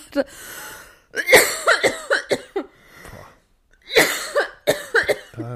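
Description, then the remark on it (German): A person coughs hard after nearly choking on their own saliva, in repeated clustered bursts, two fits of several harsh, loud coughs separated by a brief quieter gasp, with no talking. “ich muss ganz doll husten”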